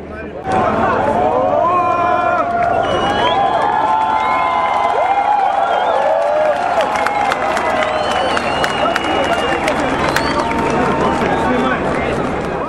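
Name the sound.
protest crowd cheering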